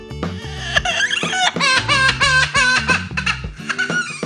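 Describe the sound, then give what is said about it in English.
A parrot mimics a crying baby inside a young couple's house while they are away, a loud run of wavering, sobbing wails that rise and fall in pitch, repeating in short bursts with brief gaps and no talking. “well, it sounds like a baby, but guess what it is? It's a parrot.”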